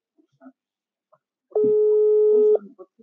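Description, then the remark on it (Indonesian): A steady electronic busy-signal tone from a home telephone sounds for about a second, clear and fairly loud, with faint voices murmuring before and after it. “sibuk nih, sibuk. Ya udah, kita telepon yang lain aja.”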